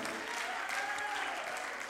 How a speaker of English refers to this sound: Come on, clap your hands, clap your hands. Hallelujah. Hallelujah.